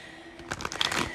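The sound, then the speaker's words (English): A deck of tarot cards being shuffled, a quick run of soft papery flicks and riffles lasting under a second, fairly quiet with no talking. “Let me get a few shuffles in.”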